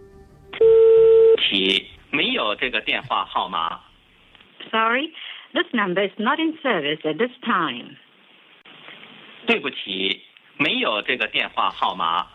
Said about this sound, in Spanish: Bueno, un mensaje que informaba eh, en chino y después en inglés que ese número, digamos, que no estaba operativo o no estaba en servicio.